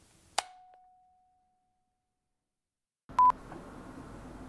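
Telephone dialing tones: a sharp click with a fading ring, a stretch of silence, then a couple of quick beeps over a hissy, noisy line. No one speaks.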